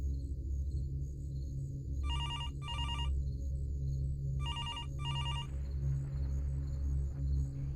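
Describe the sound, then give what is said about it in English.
A telephone rings on an outgoing call to a police sergeant's line, two double-burst rings spaced a couple of seconds apart, heard through the line over a steady low hum with no one speaking. “This indicates a phone call's coming in on the police sergeant's line.”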